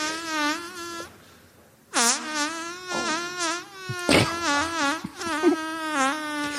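A man's long, buzzy, tonal fart, made in an attempt at the world's longest fart, rings out loud, breaking off briefly, then resuming with wavering pitch and sputtering bursts for several more seconds, with no talking.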